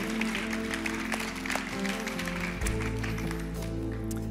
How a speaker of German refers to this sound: Applaus, danke für euren Beitrag.